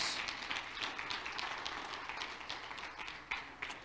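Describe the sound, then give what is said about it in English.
A church audience claps their hands in praise, a dense, continuous patter of many overlapping claps that sounds subdued, with no one speaking. “Clap your hands to the Lord.”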